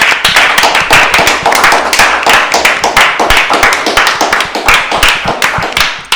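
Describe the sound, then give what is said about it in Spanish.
Hand clapping that runs steadily for about six seconds, a rapid, dense stream of sharp, loud claps with slightly irregular rhythm, like a small group applauding together. “Aplauso masivo.”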